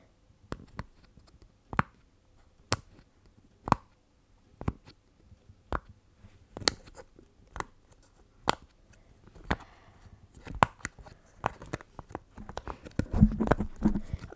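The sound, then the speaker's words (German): Pops from a silicone pop-it fidget toy: sharp, crisp clicks about once a second at first, then quicker and more irregular toward the end, with faint handling rustle between them. “Also das ist jetzt mein Poppet.”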